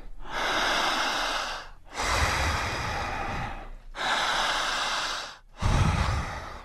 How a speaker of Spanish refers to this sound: Por la boca, profundo. Súper, súper profundo, más fuerte que eso. Eso. Otra vez fuerte.